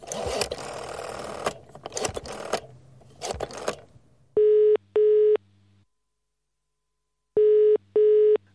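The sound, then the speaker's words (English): A UK-style telephone ringing tone sounds twice, each ring a quick pair of steady electronic buzzes separated by a pause, following a few seconds of rattling mechanical clatter; no one speaks. “Why does it sound like I'm using a phone in the UK?”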